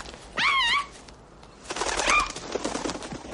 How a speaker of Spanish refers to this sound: Es una paloma, tía.